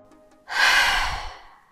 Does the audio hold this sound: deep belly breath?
yes